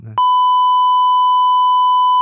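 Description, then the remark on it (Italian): A single loud, steady censor beep tone holds for about two seconds, cutting in right after a brief burst of voice at the start. “Ah, fammi il beep.”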